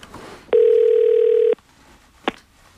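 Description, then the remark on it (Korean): A telephone ringback tone sounds once while a call is placed from a mobile phone to a contact saved in it: a steady mid-pitched buzz lasting about a second, then it cuts off; a short click follows in otherwise quiet surroundings with no talking. “제 전화기 속에 그 이름을 뒤져 전화를 걸었죠.”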